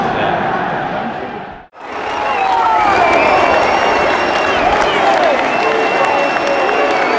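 A large football stadium crowd roars and cheers continuously, dense and loud, with whistles and shouts rising through the din after a brief cut to silence near the start, as Harry Kane scores the opening goal against Paços, seven minutes in.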